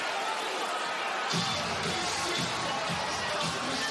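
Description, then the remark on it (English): A stunned crowd at the Toyota Center fills the arena with a steady, dense murmur and babble, no single voice standing out, a low restless hum thickening after the first second, during a Rockets timeout after a seven-point fourth-quarter lead turned into a six-point deficit. “A stunned Toyota Center crowd has watched a seven-point fourth-quarter lead turn into a six-point deficit.”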